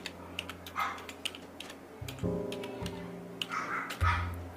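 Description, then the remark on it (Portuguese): Rapid, irregular clicks of typing on a computer keyboard, fairly quiet, as Escola do Ouvido Musical is typed into a Google search, with a low steady hum and a brief tonal drone in the background. “vou estar tá digitando aqui.”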